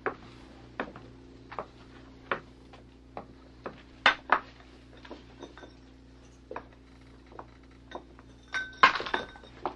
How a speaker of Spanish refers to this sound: Hija, no hagas tanto ruido arrancando esas láminas de la pared.